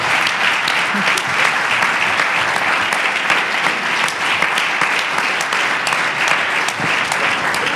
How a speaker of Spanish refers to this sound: Mira, un aplauso. Yo me puse de pie para aplaudirles a ustedes. El hecho. Yo les aplaudo a ustedes.